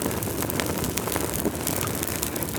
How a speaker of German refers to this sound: Unverkennbar. Lagerfeuer.